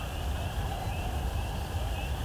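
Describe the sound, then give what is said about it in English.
Faint, far-off howling from a group of coyotes, thin wavering yips and wails drifting over a steady hiss of outdoor background noise, with no one speaking. “hearing a very distant coyote song.”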